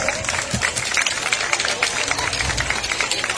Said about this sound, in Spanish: Fuerte las palmas para recibirle, por favor.